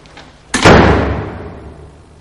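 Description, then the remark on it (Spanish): Parcher pushes a door open into an office: a sudden loud knock of wood and latch followed by a rumbling hiss that fades away over about a second and a half. “Parcher abre la puerta y entran al despacho.”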